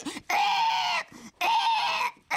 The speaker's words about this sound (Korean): 얌전히 갔나 간다 싶었던 돼지 새 아니죠 돼지 베이비가 아 갑자기 포탄통 안에서 난리를 치는 겁니다.